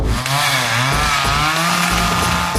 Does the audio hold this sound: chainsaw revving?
yes